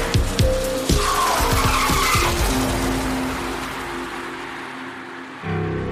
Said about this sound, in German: Bleiben Sie stehen und schalten Sie den Motor aus, Frau Lange. Sofort aussteigen! Ralf, die hält auf dich zu.